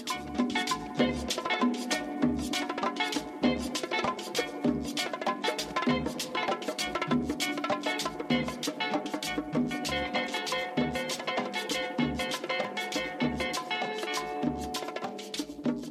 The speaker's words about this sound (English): So what you're hearing is that very definitive 60s style guitar, almost tinny with a lot of reverb, you know, kind of like kind of high sound before all the big crunchy guitars came in.